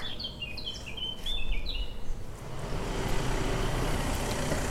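Birds chirp and sing in short, bright phrases outdoors, clear over a steady low rumble of passing traffic that grows louder as the song fades toward the end.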